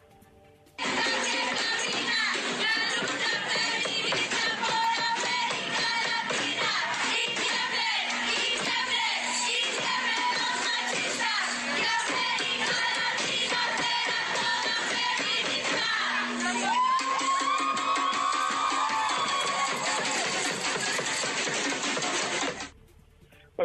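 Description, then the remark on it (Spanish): Sound of a street protest march in Chilpancingo, heading toward the Executive Power headquarters on Paseo Alejandro Cervantes, with female demonstrators carrying placards: a dense, loud wash of many overlapping voices and crowd noise that holds steady for over twenty seconds before cutting off abruptly. “Escuchemos parte de lo que se vive en esta movilización.”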